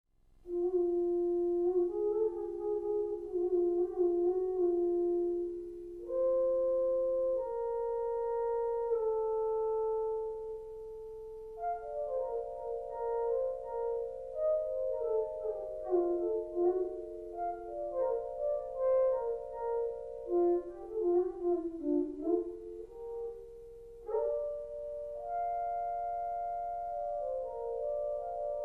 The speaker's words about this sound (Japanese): えー、もう一つの楽器を持つ右手と、えー、もう一つ左手の距離によって演奏ができる距離まあそれとその右手のについた、えー、圧力を感じることができるスイッチで演奏することができるので結果的に揺らぐように演奏をすることができる、えー、シンセサイザー電子楽器です。